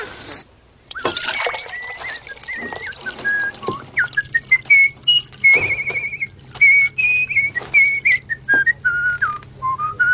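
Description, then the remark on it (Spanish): A cheerful, tuneful whistle carries a wandering melody of rising and falling notes, clear, with faint trickling water and a low steady hum in the background. “Bello silbido.”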